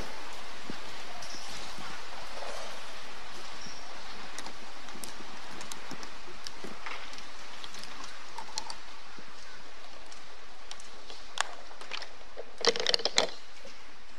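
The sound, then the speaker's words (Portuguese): Steady flowing water fills the scene with a continuous, even rushing hiss, broken by small scattered splashes and a brief cluster of louder splashing near the end. No one speaks. “barulhinho da água aqui.”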